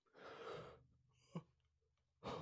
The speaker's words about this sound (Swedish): Nu råkar jag gäspa för att jag är så trött